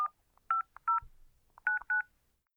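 A quick series of telephone keypad tones as someone dials a call to the German Federal Intelligence Service, short dual-pitched beeps pressed in two bursts of three with a brief pause between, clear with no talking.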